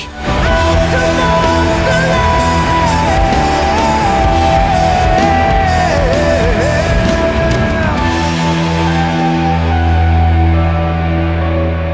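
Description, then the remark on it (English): A loud, full theme song plays with dense layered instruments and sustained melodic tones, then settles into a deep, held bass chord near the end. No one speaks over it. “that sounds so good. The familiar strains of the Monsterland podcast theme song”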